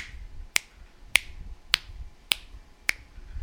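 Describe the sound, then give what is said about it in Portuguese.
Six crisp finger snaps land at a steady, even tempo, imitating the metronome click track recorded on an eight-track tape. Each snap is sharp and bright against a quiet, low background hum, with no talking. “E a última trilha é o clique. O que, que é o clique? Para quem não sabe, é aquele metrônomo.”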